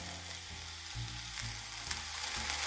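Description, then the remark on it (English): Mushrooms sizzle steadily in a hot pan, a constant bright crackling hiss with low thuds and scrapes as they're gently pushed around so most touch the bottom of the pan, fairly loud and continuous with no talking. “I just kind of like gently push the mushrooms around so they all, most of them anyway, are touching the bottom of the pan.”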